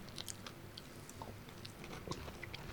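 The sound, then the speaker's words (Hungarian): Chewing of a spicy chicken wing with bone, with soft wet mouth noises and occasional sharper crunchy bites spread irregularly across a few seconds, no talking, fairly quiet. “Arról nem volt szó, hogy ez csontos. Hát szárnya akkor ezek szerint.”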